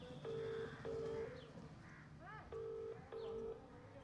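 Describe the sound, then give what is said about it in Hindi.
Four clear, steady telephone keypad tones sound in two quick pairs, each beep lasting about half a second, with faint bird calls and chirps in the background between them, as women dial a phone to call an official of the PHE department. “विनीता दीदी ने भरोसी दीदी बसंती दीदी और सोना दीदी के साथ मिलकर पीएचई विभाग के अधिकारी को फ़ोन लगाया”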